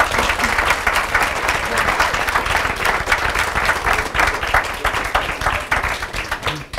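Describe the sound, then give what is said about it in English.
A sustained round of applause from an audience for the panelists at the end of a panel conversation, dense overlapping clapping at a steady, fairly loud level throughout, with no voices standing out above it. “So we are we are at time, but I want to give our panelists a round of applause.”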